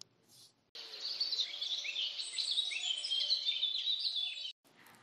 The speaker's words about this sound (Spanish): Inmediatamente, la erizo se asoma en la ventana, escucha a los pájaros cantar.